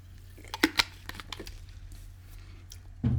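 Someone takes a sip of water: a few soft clicks and knocks as a cup or bottle is handled, faint mouth sounds, then a louder thump at the end. Quiet, with no talking.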